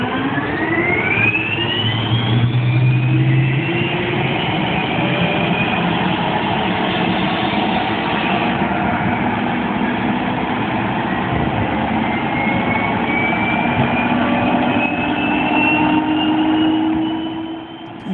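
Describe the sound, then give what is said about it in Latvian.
A heavy tank's gas turbine jet engine, running on aviation fuel, whines steadily for the full clip, its high tones sliding slowly upward like an aircraft, over a dense low rumble, loud with no talking. “Piemēram, tiem ir reaktīvais dzinējs un paklausāmies varbūt tagad, eh, kā tas izklausās.”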